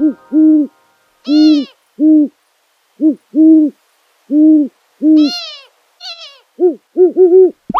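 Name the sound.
long-eared owl hooting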